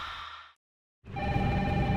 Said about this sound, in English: Phone! Does anyone work here? Jeez.